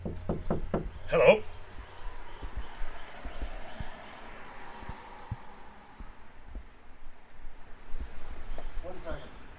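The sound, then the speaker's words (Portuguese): A quick series of four or five sharp, fairly loud knocks on an apartment door, followed by quiet room tone with faint scattered thumps and a muffled woman's voice answering near the end. “Eu respiro fundo e bato na porta.”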